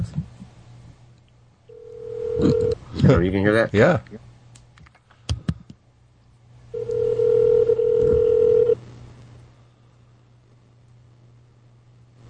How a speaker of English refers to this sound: I hope you're not really dialing 911.